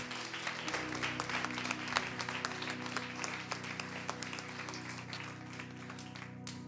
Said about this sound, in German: Lass uns ihr nochmal einen Applaus geben.